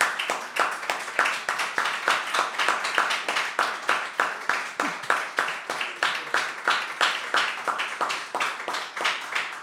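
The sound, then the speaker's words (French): An audience claps together in acclamation of their apostle, in a steady, rhythmic beat, roughly three sharp claps per second, sustained evenly for the whole stretch with no voices standing out. “Donc faisons une acclamation à notre apôtre.”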